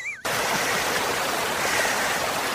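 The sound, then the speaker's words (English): A waterfall rushes with a steady, dense roar of falling water that starts abruptly and stays loud and constant throughout, with no voices. “There's two deer on your right, there's a rabbit on your left, and you can hear the waterfall.”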